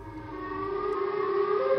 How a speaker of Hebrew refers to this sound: שוב שמעתי את זה. הפעם שפשפתי את האוזן שלי כדי לבדוק אם אני שומע טוב. זאת הייתה אזעקה. שוב, אותה אזעקה שבורה ומוזרה. ולא רק שזו הייתה אזעקה, הפעם שמעתי אותה ממש חזק מהחדר שלי. כאילו, כאילו היא כמה מטרים מפה. כאילו הסירנה מגיעה ממש מחוץ לבית.